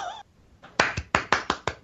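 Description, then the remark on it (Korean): A short burst of hand clapping, about six or seven crisp claps in a quick, slightly uneven rhythm, following a brief snatch of voice at the start. “아 박수를 쳐줄 수밖에 없는데 게임샷 인터뷰고요.”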